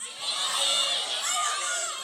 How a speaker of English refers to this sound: Who has special food they eat during the Christmas season? What's your like? Let's everyone on the count of three yell out the Christmas special food that you eat. One, two, three.